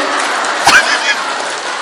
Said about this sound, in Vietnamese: bây giờ mấy bạn kích mình thích giảng rõ ràng vỗ tay là kích thích đó nghe quý vị vỗ tay là kích thích đó